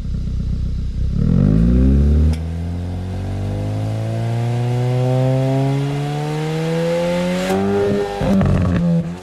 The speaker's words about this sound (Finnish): No sitten Hyundailta tuli i20Nstä meille tarjolle ensimmäiset maistiaiskuvat ja pakoääninäyte.